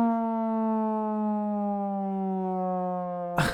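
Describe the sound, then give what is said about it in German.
A steady, droning alarm siren holds one low, buzzing pitch with rich harmonics, sliding slightly downward before cutting off abruptly into a brief burst of noise. “Halbwissen Alarm! Halbwissen Alarm!”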